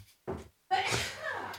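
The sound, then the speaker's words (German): A single sneeze: a brief voiced intake followed by a loud, breathy, noisy burst that trails off over about a second. “Gesundheit an denjenigen, der da genießt hat.”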